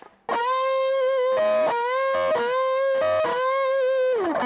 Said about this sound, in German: Und was besonders gut geht auf der E-Gitarre sind pfeilscharfe Töne. Achtung, jetzt lasse ich die Gute mal so richtig jaulen.